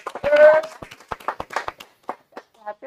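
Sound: clapping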